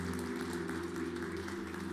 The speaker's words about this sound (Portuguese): Você pode dar uma, um forte aplauso ao Senhor nessa noite?